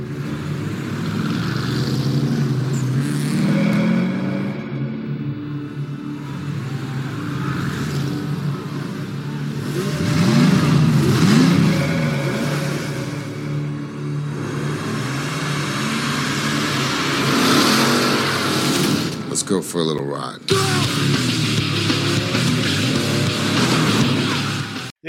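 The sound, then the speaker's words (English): Race car engines rev loudly and continuously in the trailer of a 1954 film, their pitch rising and falling in surges, with a brief abrupt break near the end before the roar resumes. No one speaks. “The Fast and the Furious. Not the one from 2001, but the one from 1954.”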